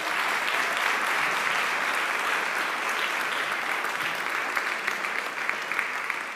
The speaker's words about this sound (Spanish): Y si tú lo reconoces, yo quiero invitarte a que tú le des un aplauso fuerte a Él.